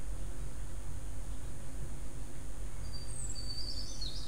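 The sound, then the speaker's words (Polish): Small birds waking at dawn chirp faintly in the distance, a few brief high calls arriving near the end over a steady outdoor hiss and low rumble, with no one talking. “E, czasem gdzieś pochukiwanie sowy, gdzieś tam już dalej się budzą pierwsze ptaszki.”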